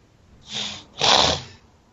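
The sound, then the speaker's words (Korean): Two heavy, rough breaths of a meeting participant picked up by an open microphone, a shorter hiss followed by a longer, louder rasping exhale, breathy and noisy with no talking. “발언 안 하실 때는 마이크를 좀 꺼주시는 것도 괜찮을 것 같은데 거친 숨소리가 마구마구 들어와서.”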